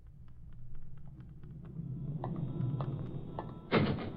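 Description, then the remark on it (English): The door of Tony's bar rattles and creaks open over a low rumble, followed by a sudden heavy thump near the end as a man is thrown out. No one speaks. “As a matter of fact, I was passing Tony's bar, not even intending to stop, mind you, when just as I got in front of the place, the door opened and they threw a guy out.”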